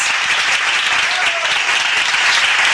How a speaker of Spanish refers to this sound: Aplausos, muchachos. Gracias.